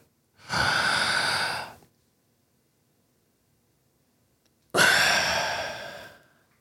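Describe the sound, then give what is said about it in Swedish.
Two long, airy breaths: a slow deep inhale lasting over a second, a pause of silence, then a full exhale tapering off. No talking. “Bara andas.”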